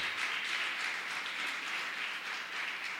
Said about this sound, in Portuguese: Você pode aplaudir o Senhor? Glória a Deus.